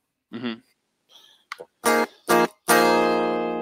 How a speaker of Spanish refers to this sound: ¿Y a poco eso se va a oír, sí, La eléctrica muda, sí, porque acústica ahorita no tengo, pero con esta trabajo.